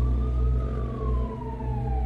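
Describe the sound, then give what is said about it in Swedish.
An ambulance siren wails loudly as the ambulance arrives at a scene where a bystander is performing CPR, its tone sliding slowly downward over a steady low engine rumble, with no voices. “Efter en stund är ambulansen på plats och kan ta över arbetet.”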